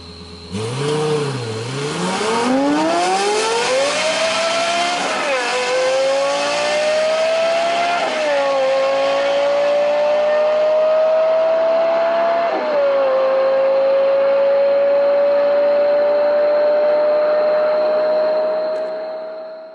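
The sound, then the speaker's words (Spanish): A Toyota sports car engine roars loud, revving up hard and climbing through several quick gear shifts before holding a high, steady whine for the remaining seconds, with no one speaking. “Pero a nosotros nos quedó en mis ojos el mejor coche japonés de la historia. Y si hasta ahorita no los he convencido, escuchen esto.”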